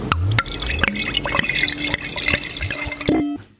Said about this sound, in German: Ähm, ich habe jetzt bewusst zu wenig ins Glas angegossen,